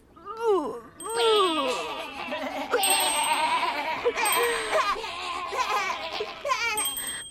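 small bell ringing

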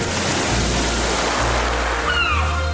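ocean waves at sea

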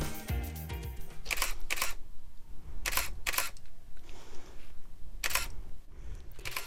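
camera shutter clicking

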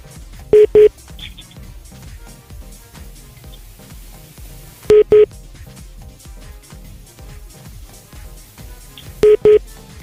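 telephone keypad dialing tones

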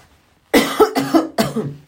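coughing

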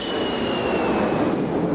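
airplane taking off

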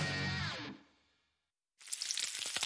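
bacon sizzling

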